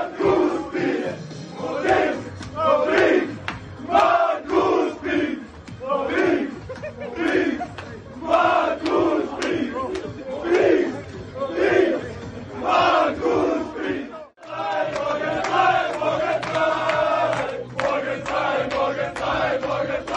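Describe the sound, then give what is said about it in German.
A loud crowd of Austria Klagenfurt football fans and players celebrating promotion to the Bundesliga, chanting and shouting in rhythmic bursts; after a brief cut the jubilant crowd noise continues, dense and unbroken. “Sie spielen oben in der Bundesliga und wir hören nochmal ganz kurz rein, auch in die Feierszenen nach dem Fixieren des Aufstiegs.”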